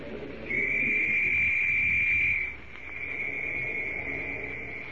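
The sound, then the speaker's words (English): A police whistle is blown loudly in a valley in one long, steady blast, then its shrill, piercing tone carries on more faintly as it echoes, over a low rumbling background. “Shrill and sharp, the whistle rings through the valley”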